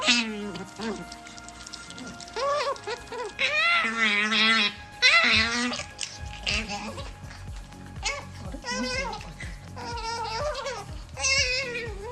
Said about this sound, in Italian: vi propongo come antidoto i suoni di una pucciosissima lontra, molto viva, vispa e affamata.